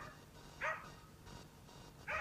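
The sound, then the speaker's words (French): Two short, sharp barks voiced by a person imitating a dog, a voice artist who dubs French-language dog barking, spaced more than a second apart and fairly quiet, with low background noise between them. “Je double l'anglais et euh, l'aboiement canin, mais seulement l'aboiement canin francophone.”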